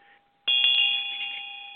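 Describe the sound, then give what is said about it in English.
A small hand bell rings out sharply after a brief silence, its clear bright tone shimmering with rapid repeated clapper strikes, then sustaining and slowly fading, alone without any voices; it is rung in a ritual to the quarters, starting in the west. “rings the bell to the quarters, starting in the west”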